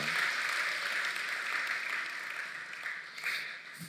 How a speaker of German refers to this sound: Hey, das ist ein Applaus wert, oder? Wow.